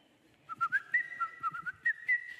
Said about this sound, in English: Hi ho, hi ho, it's off to work we go. Da, da, da, da, Do y'all whistle like that on Monday morning?